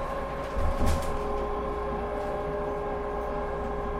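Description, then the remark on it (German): Steady rumble and hum of a tram rolling through Bremen at night past the Marktplatz on a Sunday evening, heard from inside the car, with a brief louder clatter near the start and sustained tonal whine from the motors. “Bremen by Night - Marktplatz, Straßenbahnfahrt”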